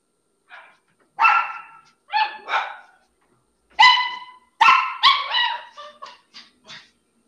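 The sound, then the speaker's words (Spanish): A small dog barks repeatedly in short, high-pitched yips, some drawn out into whiny cries, in an uneven series of about ten calls. The sounds are clear, with no talking. “Espera, espera, tiene el sonidito. Espera, espera, espera. Trae a mi cuti, trae a mi cuti.”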